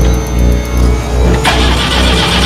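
A car engine cranks and then catches, its steady mid-pitched rumble suddenly swelling into a louder, brighter roar partway through. The sound is loud, with no voices.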